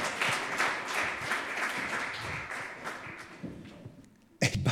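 A crowd applauds with dense, steady clapping that gradually thins and fades toward the end, followed by a brief louder burst of a few sharp claps.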